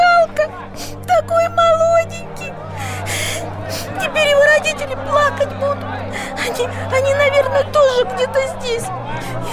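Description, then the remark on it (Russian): Several voices crying and whimpering, wavering sobs rising and falling in short bursts over a steady low droning hum, moderately loud. “Все плачут, и я, и я плачу”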